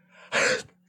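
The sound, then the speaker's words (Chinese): A soft breathy intake, then one loud, sharp sneeze that bursts out and cuts off quickly, with a faint steady low hum running underneath. “我在这个时候打喷嚏，那个绝对落枕，没有在开玩笑。”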